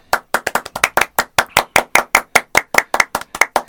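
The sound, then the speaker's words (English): Steady, rhythmic hand clapping for a joke, about twenty sharp, bright claps at an even quick pace, fairly loud, with no voices over them. “And Look a little bit of clapping for the Happy Days joke.”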